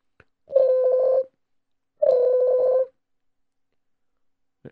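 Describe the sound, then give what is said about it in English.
A telephone being dialed to call a photographer: two sustained, buzzy electronic tones, each under a second long, separated by a short pause, with faint clicks at the start and end and no talking. “Now, let me call him up over here.”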